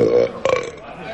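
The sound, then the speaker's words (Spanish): A loud, deep, throaty burp with a second guttural push right after the first, lasting about a second with no talking, from a man in a tavern after eating a heaped plate of beans. “Tras eructar el colmado plato de alubias que le fuera servido como pago a su sobrecogedora historia, riéndose para sus adentros de los desencajados rostros que se congregaban a su alrededor en la taberna, dijo con voz ahuecada.”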